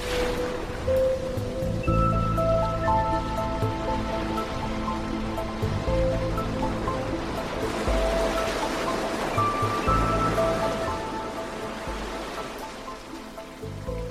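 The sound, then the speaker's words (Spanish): Gentle, steady wash of calm sea waves rolling in continuously at moderate loudness, with soft sustained musical tones layered over the surf throughout. “Cruzaremos el sosiego del bosque, navegaremos el mar en calma y llegaremos a la quietud del horizonte.”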